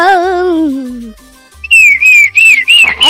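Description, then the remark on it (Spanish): A person whistles an imitation of birdsong: a gliding tone, then a loud run of quick warbling chirps and trills in short bursts, with no talking over it. “ya tenemos al pajarito Morrío. El único pájaro que canta”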